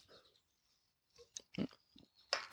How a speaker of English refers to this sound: needed a sip of my my drink.